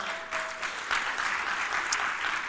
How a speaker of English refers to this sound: For those of you that have been here, has this series been a blessing to your life? If it has, can you give the Lord a round of applause?